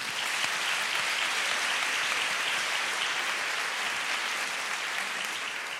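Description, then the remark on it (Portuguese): Sustained applause from an audience for the people who built the stage set, a dense, steady crackle of many hands clapping at once, holding at an even level for several seconds and easing slightly at the end. “Por favor, uma salva de palmas para eles.”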